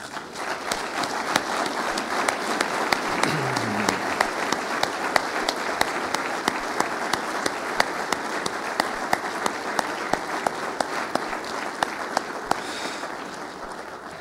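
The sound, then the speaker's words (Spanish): A crowd applauds the Lord loudly and steadily for about fourteen seconds, a dense wash of many hands clapping with sharper individual claps popping out, and no talking over it. “Le puedes dar un aplauso fuerte al Señor.”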